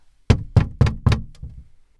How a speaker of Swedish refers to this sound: Efter ett tag knackade det på dörren igen.